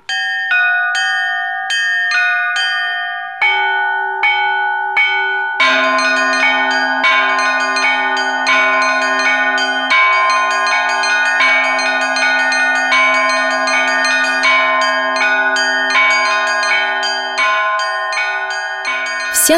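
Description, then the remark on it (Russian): Church bells in a convent are rung by hand by a nun before the service: a steady, lively peal of several bells of different pitches in a repeating rhythm, loud, with long ringing overtones and no voices. “есть ли в обители звонарь, сестра Магдалина ответила, что немного училась колокольному искусству”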